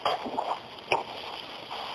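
Heavy rain pours down in a steady, dense hiss with occasional splashy bursts, constant throughout, with no voices.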